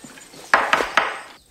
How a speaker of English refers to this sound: Um, and you you have seen the film that he followed it up with, Noises Off. Knocking. Knocking. Knocking.